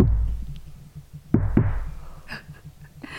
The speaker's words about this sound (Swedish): Men jag, jag, jag, jag kom ju fram till det att jag säger till den här personen att knacka en gång om det är ja. Ah. Knacka två gånger om det är nej.